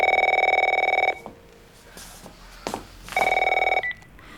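A telephone rings in two loud bursts, each about a second long, with a steady high electronic trill, separated by a pause with faint background noise.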